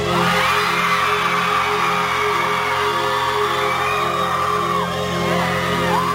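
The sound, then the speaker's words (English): A dense, loud crowd at a live rock concert roars continuously, with many high-pitched screams and whoops from the women in it rising over a steady low hum from the stage amplification. “some noise just from the girls.”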